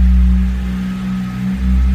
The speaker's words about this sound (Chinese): 两千转了，两千转，油门踩到底，转速上不去了。但是呢，车在慢慢的往坡上挪。哎呀，这个这个动力干吼不走啊！